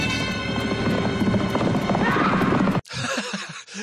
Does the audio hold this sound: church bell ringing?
no